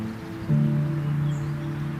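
A steady wash of road traffic on National Road 13, heard at the La Combe German soldiers' cemetery: a continuous low rumble with a droning engine hum that swells slightly after the first half second. No voices.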